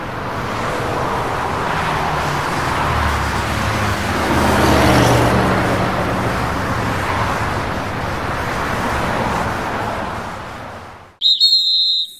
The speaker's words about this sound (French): Il y a deux personnages dans cette pièce, l'agent de police et l'automobiliste. La pièce débute quand l'agent rejoint l'automobiliste après avoir sifflé.